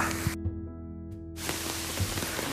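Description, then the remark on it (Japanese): Heavy rain pours down in a dense, steady hiss, cutting out briefly for about a second before rushing back just as hard, with a few soft low thumps underneath. The rain has suddenly started again after stopping, and an umbrella is being held. “あ今聞こえるかもしれないですけどまたね、うん、全然雨止んでたなって思ったら急にまた雨が降ってきたんで”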